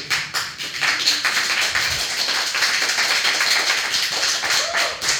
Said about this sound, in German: Es gibt hier noch ein paar freie Plätze, nur noch ganz wenige. Es gibt eine riesige Menge, die macht jetzt Applaus.